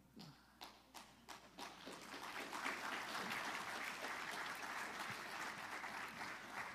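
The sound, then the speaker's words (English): An audience bursts into applause, starting with a few scattered claps and quickly swelling into steady, dense clapping that holds at full strength to the end. “Y'all don't even know what you're clapping for.”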